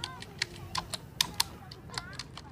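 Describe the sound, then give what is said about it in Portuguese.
Slow, uneven typing of a résumé on a computer keyboard, keys found one by one, with sparse individual key clicks spaced irregularly over a faint low background murmur. “Eu olhei para a tela e vi que ele estava tentando digitar um currículo.”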